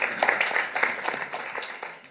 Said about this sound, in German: Herzlich willkommen. Applaus